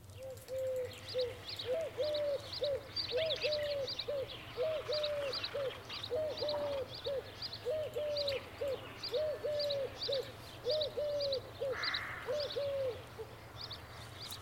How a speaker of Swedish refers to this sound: Vi kan lyssna på turkduvan lite.